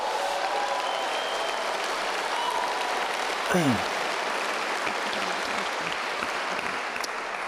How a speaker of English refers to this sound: Um, so, can we give these guys just a huge round of applause?